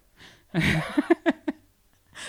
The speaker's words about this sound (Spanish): También se escuchan los ronquidos de la perra. Las perras, yo, te un, voy a hacer un trato con el diablo para que las perras dejen de roncar tan fuerte, pero puedo dormir a la noche.